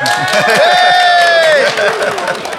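An audience cheers and claps in a dense, steady wash of noise, with a long piercing whistle rising and falling over the crowd for about a second and a half, applauding for Horten at a live recording of Vertshuset at Midgardkollen.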